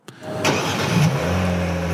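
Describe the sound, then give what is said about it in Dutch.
A car engine cranks and catches with a sharp burst, then settles into a steady, loud idle with a low droning hum and faint higher whine, no voices. “Ja, dat, geluid vond ik niet heel, nee, eh, ik niet heel warm van of zo.”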